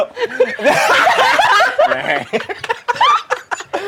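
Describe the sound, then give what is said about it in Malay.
A person imitates a goat bleating as part of a playful reenactment, with a series of wavering, quavering voiced cries, mixed with snickering laughter. “Aku jadi kambing.”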